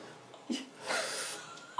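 Sharp, breathy gasps of someone hyperventilating while lowering their whole body into cold water, a quick short intake followed by a longer ragged breath, fairly loud.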